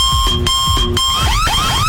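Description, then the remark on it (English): A loud electronic alarm blares, starting with two bursts of harsh pulsing beeps over a steady high tone, then switching to rapid rising whoops that repeat. No one speaks. “We don't know when that alarm is going to go off again.”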